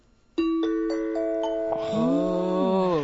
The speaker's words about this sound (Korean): 자, 방송 복귀 후에 처음으로 지금 사실 실로폰 채 잡아보는 건데 음. 오늘 맑고 고운 소리로 딩동댕. 딩동댕은 이렇게.